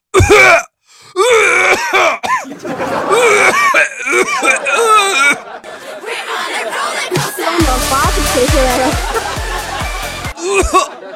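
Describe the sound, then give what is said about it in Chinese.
A voice performs exaggerated fake coughing, imitating first an ordinary cough, then a severe cough, then an even harsher one: hoarse coughs and throat-clearing building into harsher, raspier hacking bursts with strained, groaning vocal sounds, loud throughout. “普通的咳嗽是，严重的咳嗽，更狠的。”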